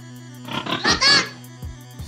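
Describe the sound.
A pig grunts and oinks in a short flurry of nasal, squealing bursts, followed by a couple of softer low grunts over a faint steady hum.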